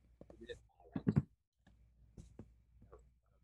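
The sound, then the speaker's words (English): Faint, irregular clicking of someone typing on a keyboard with their microphone unmuted, a few quick strikes scattered over a few seconds, with muffled voice sounds and low rumble underneath. “You gotta mute your mic you're typing.”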